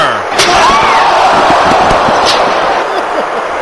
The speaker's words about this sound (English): AJ with that scream out that she wanted to finish the job. Punk holding her in a full Nelson oh. as AJ then smashed Charlotte over the head with a steel chair.